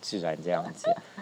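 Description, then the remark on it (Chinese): A dog gives a few short, high yips and whimpers outdoors, mixed in with someone speaking over it, the brief barks rising above the steady talk. “我们今天这个录音啊，就像我刚刚讲的，就是我们在户外，对，然后刚刚会有狗叫声啊之类的，我觉得还蛮好的，”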